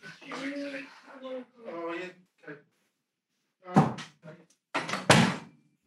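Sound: doors being shut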